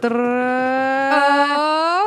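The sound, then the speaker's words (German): A single voice imitates a drum roll with a steady, rolled 'drrr' held for about two seconds, fairly loud, with a slight rise in pitch toward the end. “Wirklich, aber da ja, war ein Trommelwirbel.”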